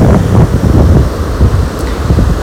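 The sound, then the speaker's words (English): Blustery wind buffets the microphone in steady low rumbling gusts on a beach as light rain begins to fall, with a broad wash of surf-like noise underneath; loud and continuous, no voices. “So you can picture me on the beach in my yoga pants and my sweatshirt with my hood up and there's some rain coming down”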